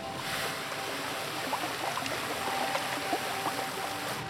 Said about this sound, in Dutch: Ja, hier zit ik vaak. Hier, eh, op het gras aan het water. Ja, vanwege, uh, nou ja, ik hou van het geluid van water.